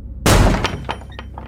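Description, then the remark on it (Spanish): A heavy, splintering crash as a wooden door is kicked at its lock and bursts open, its steel bolt torn out of the rotten wood, followed by a few smaller knocks and rattles as it settles. Loud, with no voices. “Dio un salto desde la pared y golpeó con el pie la cerradura de la puerta que tenía al lado. Aunque no hubiera contado con ello, la puerta dio con un fuerte crujido y se abrió.”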